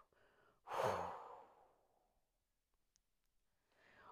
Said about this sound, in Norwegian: Og så holder vi pusten, og mens vi holder pusten, så samler vi tanker. Hold pusten. Og pust ut.